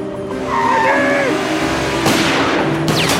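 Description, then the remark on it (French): A car engine revs as Rodi gets into his car and drives off, tires squealing and skidding in long, wavering screeches, loud, with a couple of sharp bangs near the end. “Il y a Rodi qui monte dans sa caisse.”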